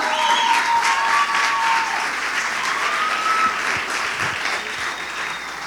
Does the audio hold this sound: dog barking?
no